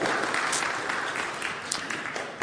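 Steady audience applause, a dense crackle of many hands clapping at a fairly loud, even level throughout, with a few sharper claps standing out and no one speaking.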